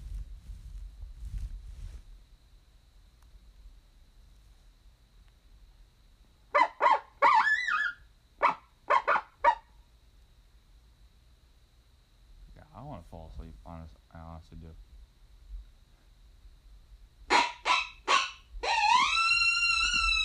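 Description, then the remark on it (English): Sharp, high coyote barks and yips come in three clusters of rapid, wavering calls, the last rising into a drawn-out yipping howl. They sound loud over a quiet low rumble. “That don't that even sound like a fucking wild coyote.”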